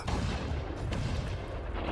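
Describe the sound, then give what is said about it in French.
Heavy naval cannon fire rumbles continuously during a sea battle at night under a moonlit, smoke-filled sky, a dense low booming barrage with one sharper report partway through, loud and sustained with no voices. “La bataille fait rage. La lune brille, mais la fumée des canons obscurcit le ciel.”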